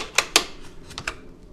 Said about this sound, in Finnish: Nämä on latausatuspatta, nämä ei räjähde kyllä. Niin nyt pannaan patruna piippuun. Näin.